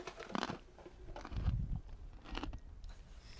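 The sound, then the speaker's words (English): A horse crunches a mint eaten right out of a person's hand, several loud, gritty bites and chews in an uneven rhythm, with no talking. “Okay, that's an actual crunching sound.”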